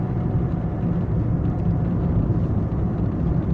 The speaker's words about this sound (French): Waouh, ça c'est du gros camion. Ou ça c'est du petit camion mais blindé. Il y a un monde sur ce route.